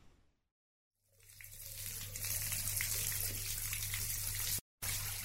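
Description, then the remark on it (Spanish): A steady stream of water runs from a tap, a broad hissing splash with a low hum beneath. It starts after a brief silence, swells quickly, and cuts out for a moment near the end. “Es un chorrito de agua que sale del caño.”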